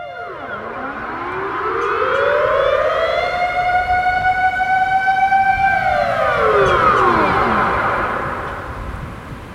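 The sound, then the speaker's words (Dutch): Loud civil defense warning sirens wail across central Amsterdam, by a canal, at 12 noon on a Monday, the tone rising slowly, holding a long steady howl, then sliding back down, with a second siren layered on top. “Sirenes over de stad, die waarschuwen voor onheil en oorlog.”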